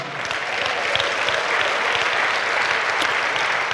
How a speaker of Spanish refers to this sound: Dele un aplauso a Cristo si quiere, hermano.